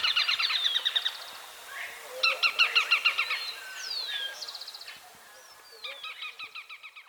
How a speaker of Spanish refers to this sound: Vive generalmente a más de mil metros sobre el nivel del mar. El trino del rastrojero Pizarra forma parte del Banco de Sonidos de Aves Colombianas, recopilado por el Instituto von Humboldt y la Universidad de Cornell.